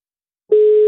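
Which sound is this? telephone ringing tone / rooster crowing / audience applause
telephone ringing tone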